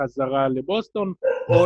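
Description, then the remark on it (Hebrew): A dog barks in the background in short, repeated yaps, partly masked by a man talking close to the microphone over them. “אתם שומעים את הנביחות המעצבנות ברקע?”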